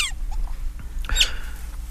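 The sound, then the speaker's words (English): A newly hatching chick peeps in a few short, high chirps, with a brief crackle midway and a steady low hum underneath; fairly quiet, no talking. “But right now we hear it hatching.”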